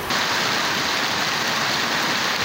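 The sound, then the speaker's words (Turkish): Heavy evening rain pours down on a container city for earthquake survivors in Hatay, Turkey, in a dense, steady, loud hiss that fills the whole clip, with no voices, then cuts off abruptly at the end. “Ta ki akşam saatlerindeki yağışa kadar.”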